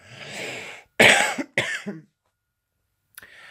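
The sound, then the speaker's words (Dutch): A person coughs, a few sharp, harsh bursts in quick succession, followed by silence and then a faint rustle or breath. “Even kuchen.”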